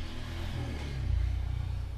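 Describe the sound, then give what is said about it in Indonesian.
A motorcycle engine drones past, its low rumble swelling louder around the middle before easing slightly, with no talking over it. “itu suara motor tadi kedengeran gak?”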